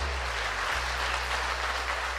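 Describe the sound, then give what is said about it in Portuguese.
An audience at a church service applauding the Lord steadily, a dense, even wash of clapping that holds at the same level throughout, with a low steady hum underneath and no voices. “Aplauda ao Senhor, Deus abençoe.”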